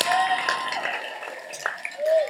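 An audience claps steadily in a dense, continuous round of applause, with a few high whistles and scattered cheers rising over the noise.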